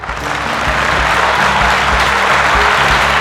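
A crowd claps steadily and loudly throughout, a dense wash of applause that rises quickly at the start and holds, with a low musical hum or chord underneath. The audience at a comedy battle is applauding for a contestant, and the applause is measured with an applause meter.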